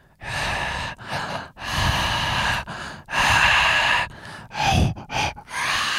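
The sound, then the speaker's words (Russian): A voice imitates loud, heavy breathing, a run of rough, noisy inhales and exhales in uneven bursts with brief pauses between them, no words spoken. “При тебе лучше громко не дышать.”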